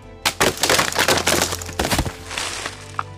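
A tree gnawed down by beavers crashes onto the ice of a pond with a loud burst of cracking and splintering wood, then a rattling, crunching impact that fades over a few seconds. Forceful, with no voices.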